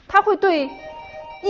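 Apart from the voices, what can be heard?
doorbell ringing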